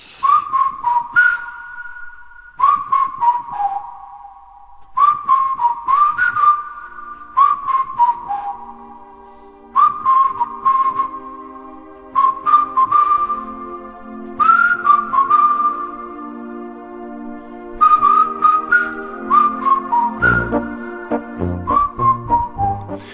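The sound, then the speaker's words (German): A bouncy Bavarian-style folk tune whistled in short repeated phrases, clear and up front, with a lower accompaniment building underneath toward the end; no voices. “Ja, bayerische Töne aus Westfalen”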